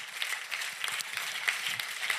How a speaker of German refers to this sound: Ja, können wir schon mal Jesus einen Applaus geben, come on.